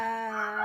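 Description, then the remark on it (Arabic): A single rooster crow, loud and sustained with a strong harmonic tone, held steadily before trailing off, with no one talking over it. “في ديك عندكم بيصيح جاي في وقته بالظبط”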